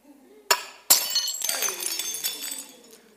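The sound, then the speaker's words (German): A drinking glass breaks: two sharp knocks, the second shattering it, followed by a bright spray of tinkling shards that skitter and settle over a couple of seconds. “Gott möchte dieses Glas so sehen.”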